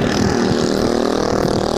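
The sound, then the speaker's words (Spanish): A loud motorcycle engine roars, its steady buzzing drone filling the whole moment with no voices over it, as the bike revs and rumbles past. “Gracias, pinche moto, vete a la verga.”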